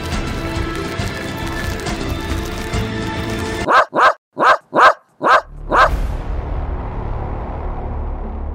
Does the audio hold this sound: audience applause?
no